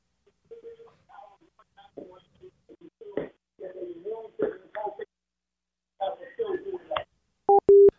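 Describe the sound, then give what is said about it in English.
A thin, phone-filtered voice talks for several seconds, then the line cuts out into two short, loud, steady electronic beeps like a busy signal. “Oh, okay, we lost him again.”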